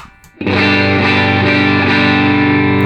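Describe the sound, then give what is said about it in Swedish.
A loud electric guitar chord played through a Wampler Tumnus Germanium overdrive pedal rings out after a brief quiet moment and sustains, thickened by warm overdrive into a rich, gritty, slightly fuzzy tone that holds steady to the end. “I veckans pryl är det världspremiär på Wampler Tumnus Germanium.”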